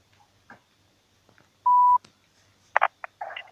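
A telephone number being dialed to call a newspaper's editorial office in Barnaul: a steady electronic tone holds for about a third of a second, followed by several short, bright bursts of ringing signal, with quiet gaps in between.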